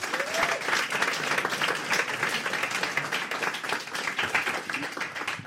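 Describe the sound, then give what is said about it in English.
Steady applause from a sizable audience for a volunteer coming up to help with a fizzy-drink carbon dioxide demonstration, dense overlapping claps sustained at an even level for several seconds, lively, with no talking over it. “Round of applause for our volunteer, please.”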